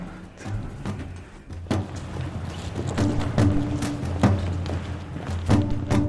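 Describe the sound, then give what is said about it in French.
Heavy doors opening at the historic headquarters of the Grand Orient de France, 16 rue Cadet, 9th arrondissement, Paris, with a series of loud clunks and thuds spaced irregularly over a steady low rumble and faint mechanical whine. No one speaks. “Ouverture des portes.”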